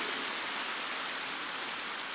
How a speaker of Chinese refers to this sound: 台下掌声一片，我相信你们的掌声应该比当年他的掌声要多一点。